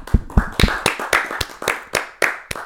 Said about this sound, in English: more live hand clap. One more. Let's get one more.